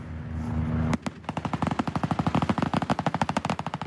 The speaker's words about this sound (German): Plötzlich taucht hinter Bäumen ein feindlicher Kampfhubschrauber auf. Die Panzerbesatzungen feuern mit Maschinengewehren.